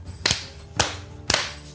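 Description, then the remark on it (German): Three sharp hand claps, made so the audio recordings can be synchronized, ring out in an even rhythm about half a second apart, each a crisp, loud burst with a short ringing tail and no voices in between. “Super, dann lass uns dreimal in die Hände klatschen, damit ich synchronisieren kann.”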